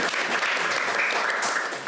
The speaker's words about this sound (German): Dieses Mal haben wir live aus dem Westwerk gesendet. Wir bedanken uns hier herzlich bei unserem Publikum und ähm, bitten nochmal um einen extra herzlichen Applaus für unseren tollen Gast